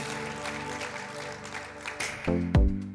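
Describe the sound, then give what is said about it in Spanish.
An audience applauds the Lord Jesus in a steady, dense wash of clapping, then sustained organ-like music swells in and grows louder toward the end. “Dele un aplauso al Señor Jesús.”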